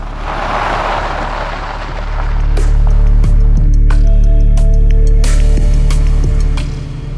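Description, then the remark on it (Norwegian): A red van's engine hums steadily, a low rumbling drone that swells louder partway through as it drives the last stretch up Konnerudgata in Drammen, with faint clicks and road noise over it. “Han tenner på noen lange lunter og kjører det siste stykket oppover Konnerudgata.”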